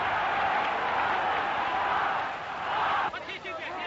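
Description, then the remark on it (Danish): A large crowd of spectators at a football match between Denmark and Sweden roars in a sustained, dense wall of cheering from packed stands, loud and continuous, easing slightly near the end as scattered voices poke through. “Se jublen på tilskuerpladserne.”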